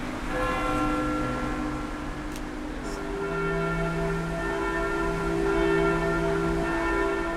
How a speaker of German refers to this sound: Glocken läuten Kirche 2. Lautes, kräftiges Läuten.